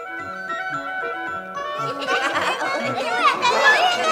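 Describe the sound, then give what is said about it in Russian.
Tinkling music plays on its own from a carousel with wooden horses, colourful lights and flags at a fair on a town square. Then a lively crowd of children's shrill voices and excited chatter swells over it, busy. “Ой, сколько тут детей!”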